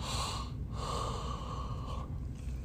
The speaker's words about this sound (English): four four yawns, one every ten minutes.